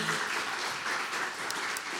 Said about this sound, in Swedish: Ja, en stor applåd.